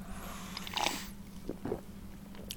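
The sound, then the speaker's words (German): A slurping sip of sparkling peach iced tea from a mug, a brief airy suck of liquid followed by a few soft mouth clicks and faint clinks, with no one talking. “Schlürf doch mal ein Schlückchen und, und sag uns, wie er schmeckt.”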